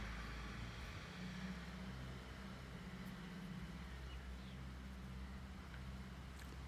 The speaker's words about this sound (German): Oh, jetzt kommt ein Trecker vorbei. Moment.